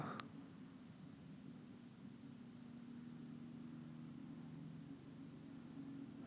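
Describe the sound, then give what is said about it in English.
A low, steady droning rumble of a loud airplane flying overhead, slowly building and lasting a long time, its engine tone humming continuously with a faint hiss, preceded by a brief click at the very start. “that a plane.”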